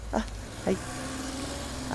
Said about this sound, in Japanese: 軽トラックにひかれるとこだって